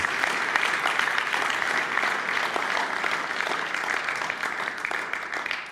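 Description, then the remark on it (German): Steady applause in a church service, given to God for a man who can walk again: a dense crackle of many hands clapping at once that holds at an even, fairly loud level for several seconds with no talking over it. “Gott verdient täglich Applaus für das.”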